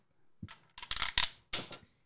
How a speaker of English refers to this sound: the uh, dice roller dragon, mm. hmm mm-hmm. which that sucker lights up too, Ooh. and then you you drop a little die down there